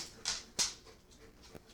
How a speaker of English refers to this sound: I feel like it's a standard thing at this point, but if you hear click clacks in the background, the dogs are in the room.